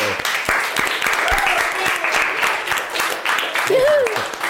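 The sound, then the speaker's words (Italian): Steady, dense audience applause fills the whole stretch, many hands clapping in a loud crackling wash, with a couple of brief rising whoops or cheers cutting through. “No, no, no, no, grande applausometro.”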